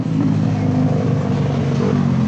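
A motorcycle engine rumbles loudly, holding a steady, throaty idle-to-rev drone for a couple of seconds with no break in the sound.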